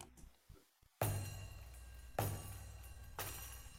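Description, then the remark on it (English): Daire frame drum used in Mevlevi music, its jingles (zils) shaken in three bright, sustained bursts, each starting with a sharp attack and a dull drum thud, then a shimmering metallic rattle that lingers. “the sound of the of the zil of the of the jingles yeah.”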